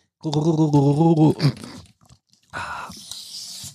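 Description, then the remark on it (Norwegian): Pieces of paper being torn off to fix a crooked desk, a rough, crackling rip that lasts about a second. It comes after a brief pause and follows a steady, buzzing tonal sound. “Dette er så spennende at jeg eh, istedenfor å eh, avbryte dere, rive papirbiter av for å fikse en eh, skeiv pult.”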